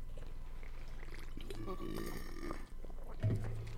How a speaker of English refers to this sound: Did you just burp into the mic, bro? Yep. Read my burp.